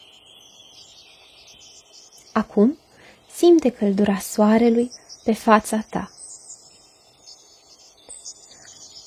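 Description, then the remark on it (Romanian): A steady, high-pitched drone of crickets runs through the whole clip with faint bird chirps mixed in, while a calm voice speaks softly over the top. “Auzi păsările ciripind, zumzeitul albinelor, aripioarele fluturilor în timp ce zboară și țiuitul greierilor.”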